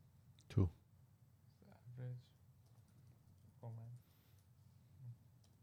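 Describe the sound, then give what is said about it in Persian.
Soft, scattered keyboard clicks tap away at a quiet level, irregular, as someone types a Google search for how many words the average woman says in a day, with brief murmured voices and a sharp knock near the start. “چون یه تایپ ده انگشتی حتما کلاس نیاز”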